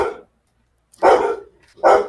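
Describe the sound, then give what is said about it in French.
Dogs barking at a small ginger cat passing through the garden, in short, loud bursts: one trailing off at the start, then two more sharp barks about a second apart, with no talking. “C'est mes chiens. Ils supportent pas les chats.”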